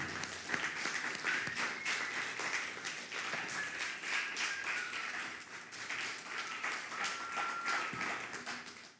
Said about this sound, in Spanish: un fuerte aplauso a todas las naciones. Ánimo.